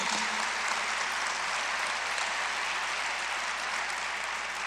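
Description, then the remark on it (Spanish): An audience applauds steadily and loudly for Christ for several seconds, a dense wash of many hands clapping at once with no pauses and no voices standing out. “Fuerte, fuerte para Cristo, dáselo fuerte.”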